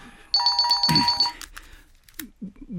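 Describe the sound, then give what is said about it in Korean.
A mobile phone rings with a loud electronic trill, a rapid pulsing burst lasting about a second, followed by a short pause and then someone briefly speaking. “아, 아, 잠깐만 전화 좀 아.”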